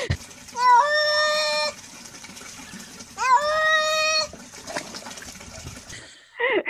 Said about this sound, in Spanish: Y ahí ves al gato llamando a Raúl.